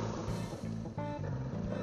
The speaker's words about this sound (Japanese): 車が全然途切れない。